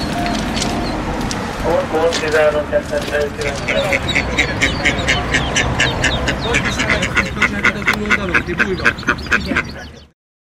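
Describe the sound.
A flock of ducks quacks loudly and continuously, a dense overlapping chorus of rapid calls, with indistinct voices murmuring underneath until it cuts off abruptly.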